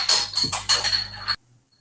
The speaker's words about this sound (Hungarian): Hoppá, hoppá, történnek itt vicces dolgok közben. Lepattant a dugó.